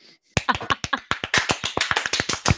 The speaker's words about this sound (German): Regieanweisung, Applaus.